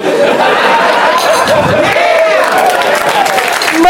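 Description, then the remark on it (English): A faint crowd cheering at a circus, a steady wash of clapping, shouts and laughter with scattered voices rising and falling across the whole few seconds and no single speaker standing out. “Now they're just listening to random cheering.”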